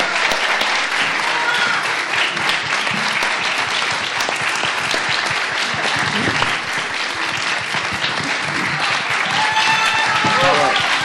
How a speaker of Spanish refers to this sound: Y un aplauso de todos ustedes porque 30 años